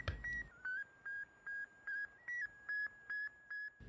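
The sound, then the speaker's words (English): A steady series of about nine short electronic beeps from the Sputnik satellite radio signal, evenly spaced and fairly loud, with a faint hiss of static underneath and no voices. “Americans suddenly feared the answer to all these questions was yes, and that the inadequacy was proven by the beep, beep, beep.”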